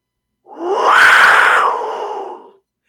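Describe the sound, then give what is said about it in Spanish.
A single loud, rough roaring blast about two seconds long, rising then slowly fading, from a Maya wind instrument like a trumpet, imitating a jaguar's roar, heard alone with no talking. “Es como una trompeta maya, digámoslo así. Y suena como, como un jaguar.”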